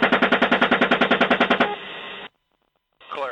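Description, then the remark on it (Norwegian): A rapid burst of automatic cannon fire from a US attack helicopter in Baghdad in summer 2007, firing at a group of people on the street: about fifteen heavy, evenly spaced rounds over a second and a half, followed by a ringing tail, silence, then faint radio-like noise. “Vi er i Bagdad sommeren 2007, og et amerikansk kamphelikopter avfyrer gjentatte ganger sin automatiske kanon mot en gruppe mennesker på gata.”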